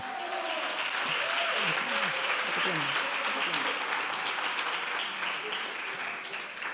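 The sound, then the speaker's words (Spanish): An audience claps steadily for about seven seconds to welcome new people, a dense, even wash of applause at constant loudness, with a few voices faintly audible underneath. “y aprovecho de saludar a los nuevos que no me conocen, porque sé que tenemos muchas personas nuevas aquí en casa a las cuales le damos un aplauso.”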